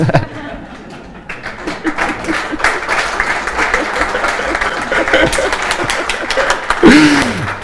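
An audience bursts into steady, dense applause for God that swells and holds for several seconds, with scattered voices and a little laughter mixed into the clapping.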